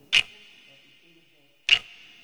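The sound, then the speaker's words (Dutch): Two crisp watch ticks land about a second and a half apart, each leaving a thin, bright metallic ring that lingers between them. No one speaks. “Hmm, de de wijzer kruipt zo tergend traag over mijn horloge.”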